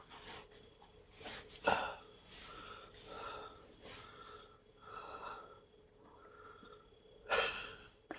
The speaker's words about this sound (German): Das tiefe gut, Atmen. Gut, gut, dass ihr das, das jetzt nicht gesehen habt. Das tiefe Atmen war jetzt